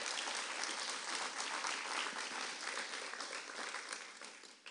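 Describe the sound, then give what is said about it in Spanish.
A crowd claps loudly in a sustained burst of dense, continuous applause, fading slightly toward the end with no voices standing out. “Si es para Él, dáselo fuerte.”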